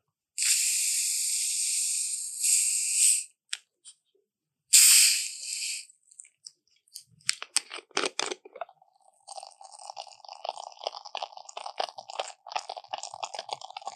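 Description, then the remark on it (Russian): Two sharp bursts of gassy hissing as a soda bottle is opened, followed by crackling fizz and a steady bubbling that continues to the end, fairly loud, with no voices. “то есть вот этот вот а, звук, который Кока-Кола практически сделала своим фирменным, когда мы слышим это шипение и звук открывания бутылочки, то есть это практически на уровне вот ДНК их бренда.”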